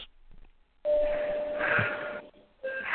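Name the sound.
clock chiming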